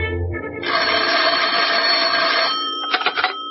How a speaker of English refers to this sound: The phone rang, and I thought twice before I answered it.